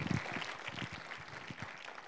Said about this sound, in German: Ihr seid spitze. Gebt euch mal einen Applaus. Und dem Herrn auch.